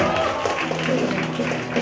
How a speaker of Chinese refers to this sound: 来，掌声好吗？